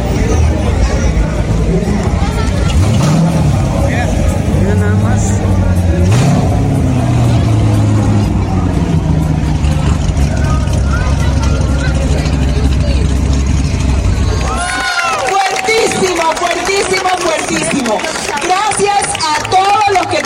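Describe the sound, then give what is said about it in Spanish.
A car drives past on a street in Toronto, its low engine rumble swelling and fading over busy street noise, followed by voices in the background once it has gone. “Ah, este carro.”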